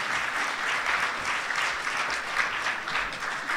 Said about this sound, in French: Est-ce qu'on peut donner une bonne main d'acclamation à l'équipe de louanges de ce matin?